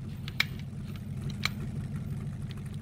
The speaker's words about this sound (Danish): Mens motoren snorer under bilens varme kølerhjelm, åbner Storebjørn øjnene og ser på husene, der glider forbi, og konstaterer, at de nærmer sig deres destination.